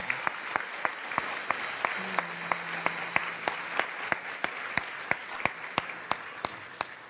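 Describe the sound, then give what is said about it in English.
An audience at the Braille Challenge awards applauds steadily for several seconds, a dense wash of clapping with a few sharp claps standing out in a regular beat throughout. “We are very appreciative, and let's give a round of applause to Braille for making this happen.”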